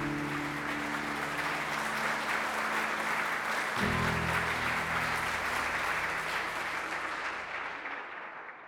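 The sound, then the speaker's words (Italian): Sustained applause from a crowd, steady and fairly loud for several seconds, with a low tonal hum underneath that shifts partway through before the clapping fades toward the end. “questa volta l'applauso è per te.”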